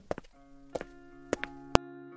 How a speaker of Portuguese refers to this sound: Emma e Victoria se despedem e saem do quarto enquanto Hector entra pisando firme e com raiva.